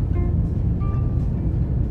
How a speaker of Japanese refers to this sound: 今日は珍しく車内からの放送をしています。今ね、車を運転しているんですよ。ただしっかりあの両手でね、ハンドルは握っておりますので、ご安心ください。ちょっとね、あのエンジン音とか、周りの車の音とかで、話が聞こえづらいっていうこともあるかもしれません。